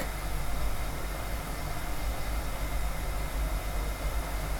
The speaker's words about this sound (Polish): Ja gotowanie wody poznaję po tym. O, teraz się zaczyna zmieniać dźwięk.